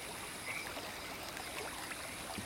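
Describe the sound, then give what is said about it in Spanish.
A tired, agitated horse that has just arrived at a trot drinks water brought to it, its steady wet slurping and small splashes running continuously over a faint, even background, with no one speaking. “Yo le acerco agua para que pueda beber si viene muy fatigado.”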